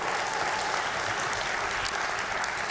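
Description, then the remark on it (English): An audience gives a golf clap, a steady wash of many hands clapping in a dense, even patter that holds at a constant level for a few seconds with no voices above it. “Yeah, there you go again with the golf clap.”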